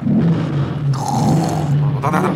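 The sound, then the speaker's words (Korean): A voice imitates a motorcycle engine revving, a loud, sustained guttural rumble with rough pulsing texture that surges in pitch partway through and again near the end. “가가가가가가. 오토바이 소리구나.”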